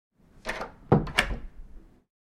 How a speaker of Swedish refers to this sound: Denne hade dock tackat nej med kort ton, vänt på klacken, gått in till sig och stängt dörren.